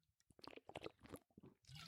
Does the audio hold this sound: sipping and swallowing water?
yes